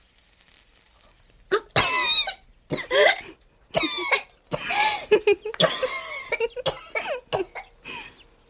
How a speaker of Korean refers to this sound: 그렇지만 숨을 들이마시기도 전 연기 때문에 목이 맵고 기침이 터져 나왔죠.